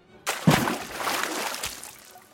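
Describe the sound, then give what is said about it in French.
A single plop as a small stone drops into still pond water, followed by a brief splash and gentle sloshing that fades away over a couple of seconds. “Comme lorsque vous jetez un caillou dans un étang.”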